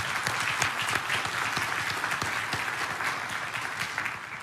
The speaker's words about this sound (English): And I ask you to applaud them too.